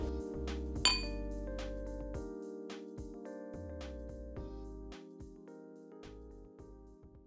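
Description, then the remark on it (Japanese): A single bright clink of wine glasses touching in a toast rings out early, over soft, steady background music with gentle plucked notes; no one speaks. It is a rainy day. “では乾杯”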